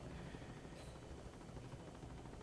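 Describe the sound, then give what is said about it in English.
Steady, dense helicopter rotor noise with a low, throbbing chop under a broad rushing roar, continuous for the whole stretch, with no voices, recorded while hanging out of a helicopter in Chiapas, Mexico. “You can turn up the audio a little bit because I was hanging out of a helicopter.”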